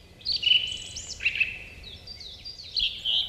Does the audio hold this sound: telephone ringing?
no